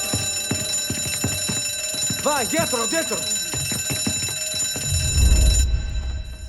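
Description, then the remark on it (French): An alarm bell rings continuously throughout, a steady metallic clamor under urgent shouting voices, with a low rumbling thud near the end. “Encore T'as bien Daviaretto, l'alarme, Hein?”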